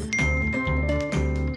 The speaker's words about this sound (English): And that was a phone noise.